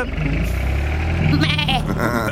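Goats bleat in loud, quavering cries, one long wavering call rising near the end, over a steady low engine rumble.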